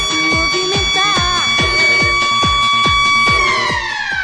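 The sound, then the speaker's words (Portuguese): A loud school bell siren holds a steady, piercing electronic tone, with a quick rhythmic thumping pulse underneath; the pitch dips slightly near the end. No one speaks. “A sirene da escola.”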